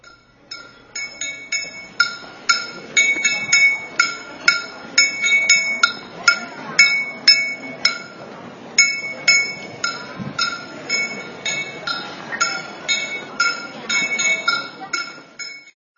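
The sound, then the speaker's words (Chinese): A Chengdu street vendor of ding-ding candy (locally called 'ma tang'), carrying his goods on a shoulder pole, taps his metal without calling out: bright ringing clinks struck in quick uneven bursts and short pauses throughout, over a soft background murmur. Recorded at the doorstep of a former home. “这段叮叮当当的声音，嗯，在我们那儿叫马汤。”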